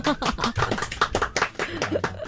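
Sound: audience applause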